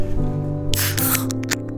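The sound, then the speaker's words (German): A beer can or bottle pops open, a sharp hiss of escaping gas lasting a moment, then a couple of shorter fizzy spurts over a steady low hum. “Na, ich trinke schon ein Bier. Trinkst du ja. schon ein Bier?”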